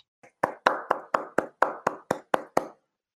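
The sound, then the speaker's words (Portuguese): Someone claps their hands about nine times in a quick, steady rhythm, each clap sharp and bright, preceded by a faint soft tap, then silence. “Você realmente bateu palma.”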